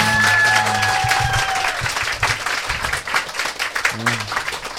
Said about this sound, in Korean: 자, 박수 그래. 한번 주세요, 네.